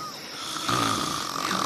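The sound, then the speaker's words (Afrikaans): A single rough, raspy snore swells up and holds for about a second, steady, with a faint airy hiss around it and no talking. “Gesnork, is dat haar?”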